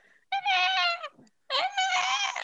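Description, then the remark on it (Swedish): A person imitates the yowl their cat makes outside the bedroom door at five in the morning: two long, drawn-out wailing cries separated by a short pause, fairly loud, with no other talking. “Min katt har ju börjat ha en raid vid fem på morgonen då hon står och skriker utanför sovrumsdörren.”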